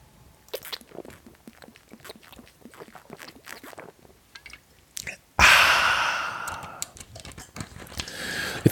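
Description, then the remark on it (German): Someone drinks Cola Zero: several seconds of soft clicks and mouth sounds, then a sudden loud fizzing hiss of carbonation that slowly fades, with faint sips following. No talking. “könnte ich sagen, es war Wasser, es ist aber Cola Zero.”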